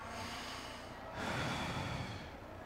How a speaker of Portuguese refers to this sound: Isso. Então, respira fundo.